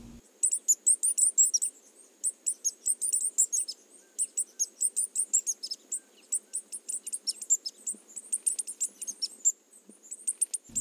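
A tanager (saíra, genus Tangara) sings a long run of very high, thin chirps in quick, uneven bursts that scarcely pause, with a faint low hum underneath and no voices, recorded in the morning during fieldwork in the Tabuleiro forests of southern Bahia, Brazil.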